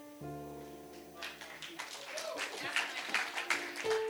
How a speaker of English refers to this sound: God bless you for clapping, but the goal is not the clap.